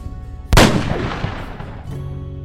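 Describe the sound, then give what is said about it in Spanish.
A single loud gunshot, fired by a woman with the gun placed in her mouth, cracks sharply and then fades into a rumbling, echoing decay over about a second, with no voices present. “Tomó el arma, la colocó en su boca.”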